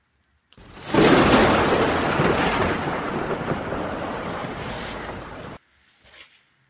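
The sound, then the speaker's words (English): A loud crack of thunder bursts in and rolls on as a long, rumbling boom for several seconds before cutting off abruptly, leaving near silence with a faint brief noise after. “Straight out thunder.”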